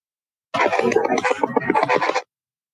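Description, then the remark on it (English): Choppy bursts of radio static and garbled fragments from a spirit box sweep, recorded in June right after a paranormal question was asked, rising abruptly, holding steady and loud for under two seconds, then cutting off into silence. “when you use Spirit Box. This was back in June.”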